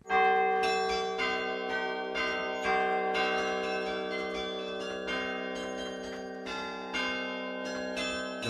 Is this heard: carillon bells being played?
yes